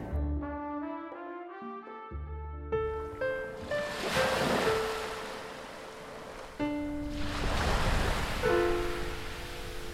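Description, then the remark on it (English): Ocean waves surge and break against the shore in broad, rushing swells, with wind blowing steadily and soft sustained musical tones playing underneath; no one speaks. “I've been planning this trip for years and now it seems incredible to be here with my bare feet needing the hot sun, listening to the roar of the waves breaking against the shore and the wind.”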